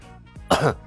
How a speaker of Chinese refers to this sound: 聂风咳嗽了一声